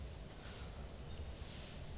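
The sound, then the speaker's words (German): A small gust of wind rushes steadily past under a sky that looks like it will rain soon, with a low rumbling buffet on the microphone and faint airy rustling above it, continuous and fairly quiet, with no voices. “Es, es kommt ein kleiner Windzug auf.”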